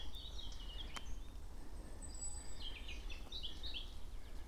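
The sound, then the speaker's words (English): A robin sings in an oak tree above the listener at Forces Cross: thin, high warbling phrases in short bursts separated by brief pauses, fairly quiet over a steady low rumble of background noise. “robin above me in the oak tree.”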